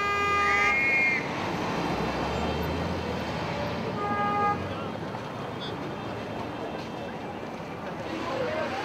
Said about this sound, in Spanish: se abren paso entre escapes de los vehículos, claxons, silbatos, música en los negocios y de los vendedores ambulantes para rastrear un problema ambiental tan cotidiano que parece normal, el ruido.